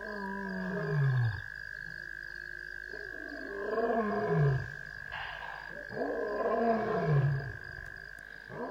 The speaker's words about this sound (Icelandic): Skrjáf í runnum og óljóst urr. Það var ljón.